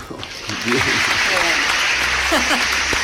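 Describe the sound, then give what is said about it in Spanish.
A round of applause from a small group at radio station BBC 106.9, welcoming a guest to the show, steady and dense for about three seconds, with voices and some laughter mixed in underneath. “te recibimos con aplausos, mira.”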